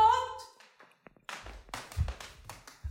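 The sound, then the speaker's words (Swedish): A door lock being turned, heard as a few sharp clicks and heavier metallic clunks, following a brief tonal hum at the start, with soft handling noises between. “Nu låser jag dörren.”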